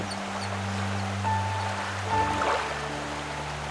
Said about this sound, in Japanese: あ滝の音だあの先にあるのはナイアガラの滝だ